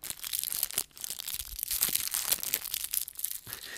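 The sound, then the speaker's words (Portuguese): A plastic orange juice bottle being crinkled and squeezed as ASMR, a dense stream of crackly, crunchy rustles with bright high-pitched snaps, moderately loud and continuous with a brief pause near the start, no talking. “Se não fez, vou fazer aqui assim ou um SMR para vocês, ou, ou plástico.”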